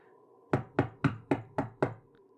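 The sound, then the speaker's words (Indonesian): Six loud, forceful knocks on a wooden hotel room door (room 007) in a steady, fairly quick rhythm, each a sharp thud with a short ring, with no voices. “Kamar Davi, yakni kamar 007, diketuk dengan keras seperti ketukan debt collector yang menagih hutang.”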